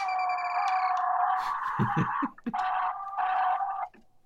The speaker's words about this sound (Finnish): Tää, tää on Wolfenstein 3Dstä, kun natsit kuolee, ne huutaa näin.